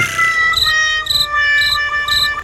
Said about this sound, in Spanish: Ándale, el grillo dijo todo.